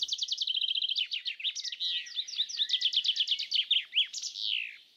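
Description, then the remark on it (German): A chaffinch sings its rapid, descending trilled song, while house sparrows keep up a busy stream of overlapping chirps in the background. No voices are heard. “Buchfink und im Hintergrund Haus Sperlinge.”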